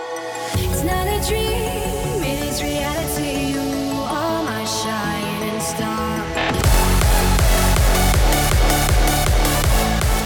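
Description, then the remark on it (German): A pop-dance song plays loudly, a melodic vocal line gliding over layered synths, then a punchy four-on-the-floor beat kicks in near the end and drives it forward. “dann würde ich sagen, weil wir in großen Schritten aufs Ende dieser Sendung zugehen, hören wir doch gleich mal rein in den Song, den du mitgesungen hast,”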